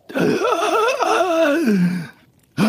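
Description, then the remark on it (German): A single voice acts out a dwarf's deep, drawn-out gasping breath, loud, its wavering tone sliding downward over about two seconds before a short pause and another voiced sound. “Der Zwerg atmet einmal tief ein”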